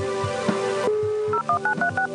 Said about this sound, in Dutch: Now, the answer takes longer because Siri needs to contact the network using a modem. Now our question is being uploaded.